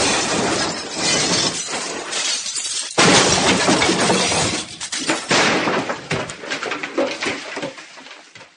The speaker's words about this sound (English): the brakes appeared to have been severed. The starship Pufwanian crash landed in one of the high towers of Hogwarts.